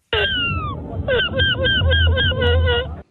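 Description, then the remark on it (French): A person loudly imitates a gull's cry, the 2023 winning cry of the seagull-cry world championship in Dunkerque, held at the Lycée Lamartine car park: a long descending wail followed by a rapid series of short, repeated yelping calls, clear, with low background noise beneath. “la 11e édition du championnat du monde du cri de la mouette est en cours”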